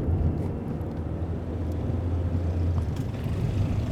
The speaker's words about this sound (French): Puis plein, plein de, plein effectivement de voitures qui passent sur ces, ces, autoroutes qui nous mènent à Chongqing.